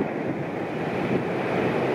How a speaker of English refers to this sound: we finally made as close as we think we can. The wind gusts here are getting pretty significant. This is going to be our closest approach right now. Huge gusts coming through. Wow.